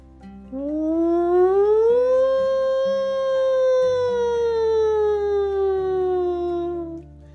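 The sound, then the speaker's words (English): A voice imitates an alarm siren sounded to evacuate a headquarters: one long, loud wail that rises in pitch, then slowly falls over several seconds, over a soft musical background. “As the alarm sounded, the entire Spy Kids headquarters ran outside.”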